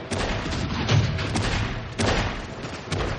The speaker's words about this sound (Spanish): En la fábrica, Willy vuelve en sí, mientras los fuegos artificiales se reflejan en su rostro.